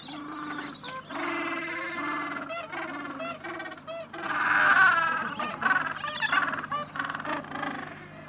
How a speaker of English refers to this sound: These are Gentoo penguins and they're very funny penguins. So what you're hearing now is parents, but you're also hearing the chicks. The chicks who are very hungry and they want to be fed by their parents. Uh, there's lots and lots and lots of them